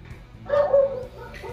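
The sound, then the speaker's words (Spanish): The dog of the neighbour across the street barks a couple of short, tonal woofs, with a softer yip trailing off at the end over low background hum. “¿Qué hemos? Un perro. Es el vecino del frente, vos, es un problema.”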